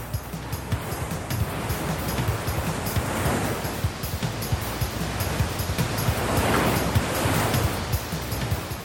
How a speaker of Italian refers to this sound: Ruggisce attorno a enormi massi e anse del fiume e crea mulinelli infidi. Farsi prendere da un gorgo potrebbe essere pericoloso, forse anche fatale. Il fiume è pieno di giganteschi massi sopra e sotto l'acqua,